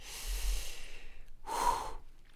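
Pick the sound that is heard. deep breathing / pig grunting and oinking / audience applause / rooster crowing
deep breathing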